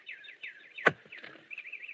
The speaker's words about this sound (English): Darn those birds. I wish they'd stop singing. They're throwing me off my game. Maybe they don't know you're playing for money.